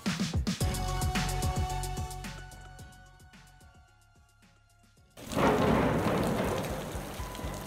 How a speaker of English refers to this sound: Spring rains are coming.